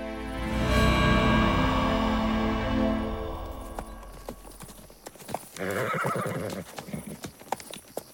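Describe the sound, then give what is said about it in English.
A horse whinnies loudly and long at the start, then hooves clip-clop at a steady trot, with sharp hoof strikes continuing until the end. “Return their horses and give them what aid you feel is right.”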